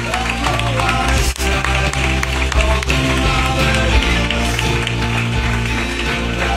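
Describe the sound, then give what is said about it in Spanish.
A crowd applauds loudly and steadily throughout for the Documfy team, a dense wash of many hands clapping, with what sounds like background music running underneath. “Fuerte aplauso a los compañeros de Documfy.”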